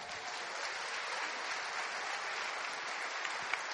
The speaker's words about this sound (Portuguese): Aplauda o nome dele.